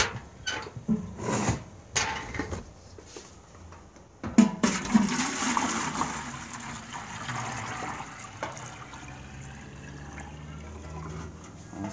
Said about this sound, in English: to do is water from this bucket and put it into the one pan.